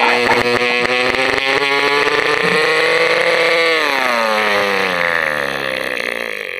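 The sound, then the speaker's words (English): Someone vocally imitates the sound a band's diesel truck made, like a heavy-duty dirt bike engine, with a loud, buzzing, throaty drone that holds steady, then dips lower as if easing off the throttle, about six seconds long with no other talking. “We just hop on, you know, like a band does, and we go to leave that night, and it's like like a heavy duty dirt bike sound, just like getting yeah”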